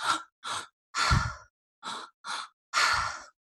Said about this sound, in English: so it's conscious connected breathing breathing deep into your belly so we do a three part breath where you dip deep into your belly the first breath then your chest and then your exhale so it kind of sounds like this